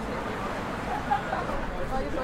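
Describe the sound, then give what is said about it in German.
A steady wash of crowd hubbub with indistinct chatter and low rumbling from the bustle of a busy city street in Berlin, continuous and moderately loud without a clear single event. “Wenn Sie gerade noch im Berliner Stadtgetümmel unterwegs waren,”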